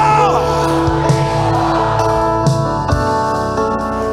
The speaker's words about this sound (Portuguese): Fica de pé se você crê no que aconteceu domingo. Alguém grite comigo no domingo.